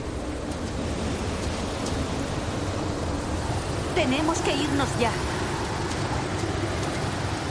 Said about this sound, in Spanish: Cubo mira alrededor. Una fuerte ventisca azota el entorno.